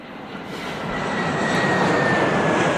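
airplane engine in flight

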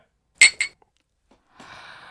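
glasses clinking

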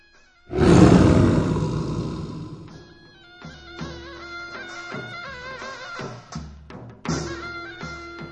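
tiger roar sound effect

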